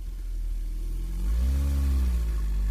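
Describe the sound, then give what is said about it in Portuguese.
A loud car engine rumbles low, then revs up about halfway through, its pitch climbing and holding in a steady growl, as visitors' cars board a long ferry to the island of Ilhabela, Brazil. No voices. “Do outro lado, a oeste, a paisagem se mistura com a urbanização, onde Ilhabela estreita seu canal com o turismo, puxado por uma longa embarcação que leva carros e mais carros de visitantes para dentro da ilha.”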